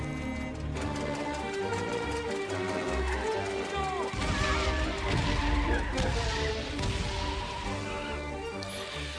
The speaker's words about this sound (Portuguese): a primeira mecânica diferente do jogo de personagens, que é a parte dos carrinhos, que você tem que ficar se desviando, né? Já dá uma quebrada, né?